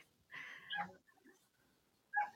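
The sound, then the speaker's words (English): Dogs bark faintly in the background, a drawn-out yelping bark followed after a pause by a shorter one, with no one speaking. “Can you hear them barking, or is it okay?”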